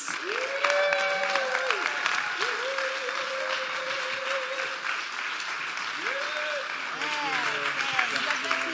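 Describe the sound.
A crowd applauds steadily and loudly for several seconds to welcome a pastor, the dense clapping carried beneath a few sustained, rising and falling tones, with some voices mixed in.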